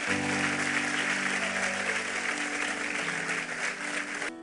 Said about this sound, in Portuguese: Vamos aplaudi-lo e vamos embora para casa.